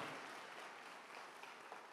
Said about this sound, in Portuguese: Vamos aplaudir bem forte, Senhor Jesus. Aleluia.